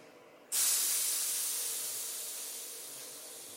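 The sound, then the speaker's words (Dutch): A loud, steady hiss of compressed air from the brakes of a train with a locomotive built in 1907 bursts in abruptly after a brief quiet moment, then slowly fades a little while continuing without pause. No one speaks. “Kijk, er staat genoeg perslucht op de remmen.”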